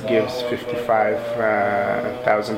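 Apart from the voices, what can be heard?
islamic call to prayer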